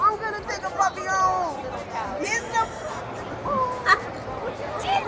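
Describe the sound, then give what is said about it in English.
A steady hubbub of crowd chatter at a Subaru display at an auto show: many overlapping voices talking at once, with a few voices briefly rising above the continuous babble. “We were at a Subaru situation, a Subaru setup at the auto show.”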